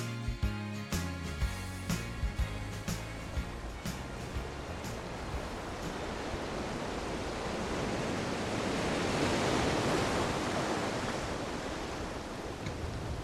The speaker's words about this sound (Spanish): Está lindo el mar.